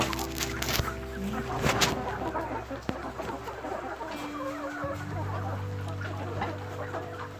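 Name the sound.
laying hens clucking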